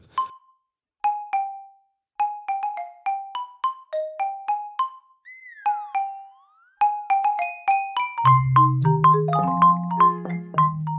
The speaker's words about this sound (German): welcher Song jetzt die Lullaby-Variante, die ich dir jetzt hier gleich vorspielen werde, ist, damit ihr auch mal ein Gefühl davon kriegt da draußen, wie das dann alles klingt. Ich habe hier mal einen vorbereitet, eine Sekunde.